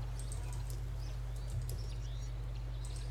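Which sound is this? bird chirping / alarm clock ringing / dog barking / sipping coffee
bird chirping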